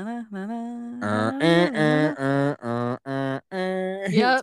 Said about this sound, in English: they did a, they had a uh, horn competition with other cruises, and that's when we got to hear the Disney the Disney cruise ship's horn for the first time.